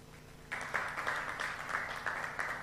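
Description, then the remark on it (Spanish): Four people in a church clapping together, a steady patter of hand claps that starts abruptly and continues at a moderate, even pace with slight surges in loudness. “Ahora, quiero que estas cuatro personas aplaudan.”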